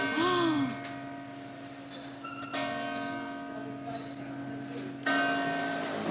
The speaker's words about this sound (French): Il est 10h, on a rendez-vous dans un petit café au hall, juste à côté de l'église Saint-Eustache, et pour une fois, je suis même un peu en avance. J'adore ça, les bruits de, l'église.